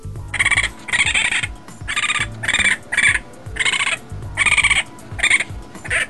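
A series of about ten short, high-pitched chirping calls from young raccoon kits, almost like birdsong, repeated in a steady rhythm with nobody talking.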